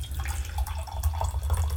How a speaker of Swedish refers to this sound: Man tror att man dricker, eh, att vi häller upp öl här. Men det är faktiskt grönt te.